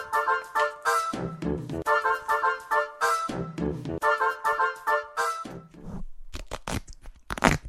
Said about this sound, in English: we decide to rip into the envelopes that are here.